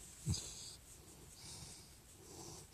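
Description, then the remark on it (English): A giant redhead dog named Curly gives one short, sharp snort, followed by soft, breathy huffs and wheezy breathing right by the microphone. The sounds are quiet, with no talking. “And then the other dog comes running through, and it's my giant redhead dog named Curly, who is sitting next to me right now.”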